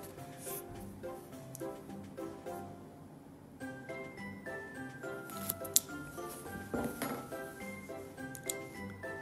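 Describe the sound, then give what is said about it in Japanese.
Rough scratching of coarse 120-grit sandpaper rubbing back and forth over smooth nylon bristles in quick, uneven strokes, roughening them while tying a fishing fly, with soft tinkling music playing throughout. “このつナイロンも毛針もそうですツルツルのまんまですとチャンがまとわりつかないのでここねよく荒らしましょう使うのは私は120番の粗めの紙やすりで、えー、もうこういうふうにねゲバゲケバケバにしちゃいますね”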